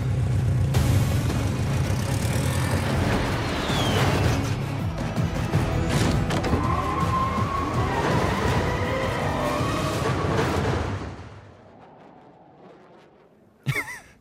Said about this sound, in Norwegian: De slipper en bil fra noe. Fra et fly. Og ikke bare én. Hele teamet i forskjellige biler hopper ut av et fly, lander på en vei i Kaukasus